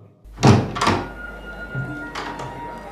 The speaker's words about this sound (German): öffne ich jetzt diese Tür.